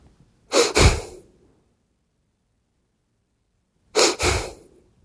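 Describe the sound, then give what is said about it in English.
A person imitates a truck driver's breathing pattern: a sharp breath in followed at once by a breath out, then a long held silence, and the same in-out pair again. Fairly loud, with no talking. “And I remember the bloke that was driving, his breathing style was in out hold.”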